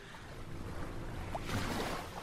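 A motorboat with an outboard engine drones steadily on the water, a low rumbling hum mixed with splashing wash that swells slightly louder toward the end, with no voices.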